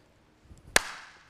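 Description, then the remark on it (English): A single sharp starting pistol crack at the start of a sprint race, fired after the 'on your mark, get set' commands, rings out after a moment of faint rustling, its bright report fading quickly into a short echoing tail. “That's the sound of the gun.”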